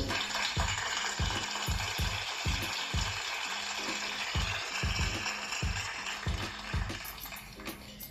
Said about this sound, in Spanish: les agradecemos a todos esos eh, hermosos este eh, mexicanos que se han ido a Estados Unidos a trabajar. Aplausos, aplausos, por favor.